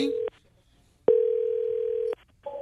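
A telephone ringback tone as a call is dialed: a steady mid-pitched electronic tone plays in a short burst, pauses, then sounds again for about a second, ending as a different tone begins.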